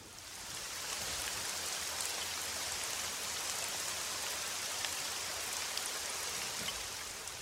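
Steady rain falls continuously, a dense hiss of drops spread evenly across the whole stretch with no pauses, fairly loud, and no voices or other sounds over it.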